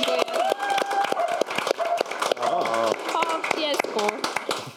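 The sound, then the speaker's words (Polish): An audience applauds a departing guest with dense, continuous clapping that fills the whole stretch, while scattered cheers and excited voices rise above the claps. “Wielkie brawa.”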